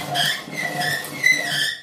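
A dirty pasta machine squeaks as it turns while being cleaned with a dry cloth before first use, giving off a continuous, fairly loud, high-pitched squeal that wavers and rises in a few strained pulses, with no one talking.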